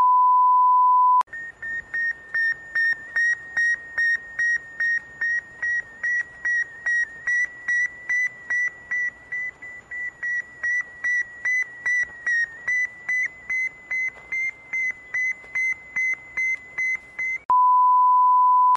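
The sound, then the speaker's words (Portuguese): The Sputnik satellite's radio signal: a long, steady train of rapid, evenly spaced electronic beeps over a bed of crackling static, fairly loud and with no voices. “colocar o som da Sputnik aqui no podcast nesse exato momento”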